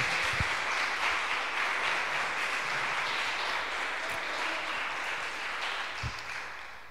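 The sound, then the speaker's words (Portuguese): A church audience applauds to the Lord after a Bible reading, in a dense, steady wash of clapping that holds at an even level for several seconds, then begins to taper slightly toward the end. “Você pode aplaudir ao Senhor por essa afirmação?”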